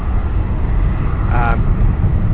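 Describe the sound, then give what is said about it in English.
A steady, broad rumble of an Air France passenger airliner passing by at Dorval airport fills the background, continuous and fairly loud, with a brief spoken hesitation from a voice partway through. “There goes this Air France plane. You can probably hear it in the background.”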